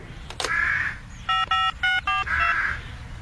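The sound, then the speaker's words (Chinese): A telephone being dialed as Bob of Bob the Builder calls Winnie: four short, bright electronic beeps in quick, even succession, framed by a raspy squawk-like sound just before and just after. No one speaks. “我给温妮打个电话。”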